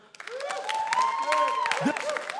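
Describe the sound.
A burst of audience applause, many hands clapping in a dense, steady patter, with voices calling out and cheering over the claps for a couple of seconds.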